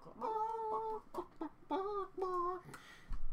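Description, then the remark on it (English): A person imitates a clucking chicken, a series of four or five warbling, nasal cluck phrases with short pauses between them, fairly loud, with no other talk. “he was pruning you know, and was literally be in a mood, literally clucking.”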